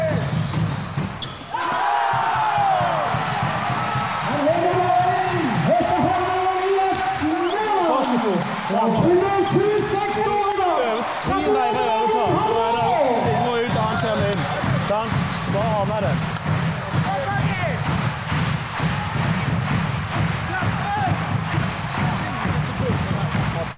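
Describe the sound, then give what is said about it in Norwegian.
Loud handball match: a ball thumps on the court amid constant shouting players and crowd noise, echoing without a break for the whole stretch. “det er mye lyd, og det, er ganske sånn intenst”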